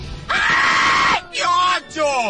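A person screams loudly in three harsh bursts: one long sustained shriek, then two shorter cries with falling pitch, close and intense.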